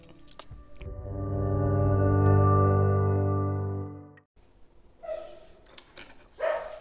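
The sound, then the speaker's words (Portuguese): A pet dog right beside the speaker lets out a long, drawn-out, howling bark lasting a few seconds, then after a brief pause gives a couple of shorter, rougher barks. “Meu cachorro começou a latir aqui do lado.”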